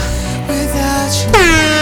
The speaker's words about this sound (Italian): Non avete sentito la trombetta? No, non l'avete sentita. No, no. la trombetta no, non l'abbiamo sentita. Non l'abbiamo no, sentita.